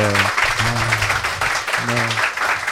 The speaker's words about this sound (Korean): 이 시점에서 또 박수를 박수 한번 부탁드릴게요, 네.